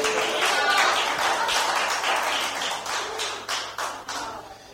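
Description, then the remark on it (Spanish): A steady burst of applause, dense hand claps blending into a crackling wash that holds fairly loud for several seconds, with a few sharper claps standing out toward the end. “Por favor, este, un aplauso a Juanito porque dice qué guapo estoy.”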